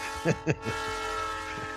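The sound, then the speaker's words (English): A steady, sustained train whistle blows throughout, loud and unbroken, with a few brief vocal bursts popping over it near the start. “just going to have that train whistle go over a half hour”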